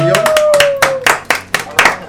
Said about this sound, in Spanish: Un aplauso. Un aplauso.